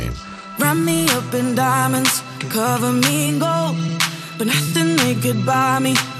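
An upbeat pop dance song plays loud and steady on Europa FM radio, with a sung vocal melody over full instrumentation and crisp rhythmic percussion throughout.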